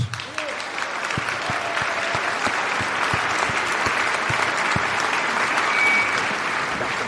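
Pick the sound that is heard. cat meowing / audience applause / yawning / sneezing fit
audience applause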